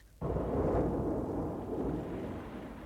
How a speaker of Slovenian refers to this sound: Ja! pravcati vihar se nam obeta, vam rečem.